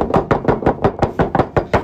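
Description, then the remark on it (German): A quick, steady series of about ten knocks on a table, fairly loud, evenly spaced like rapid rhythmic applause, with no voices. “Machen wir noch einen Klopfer für ihn?”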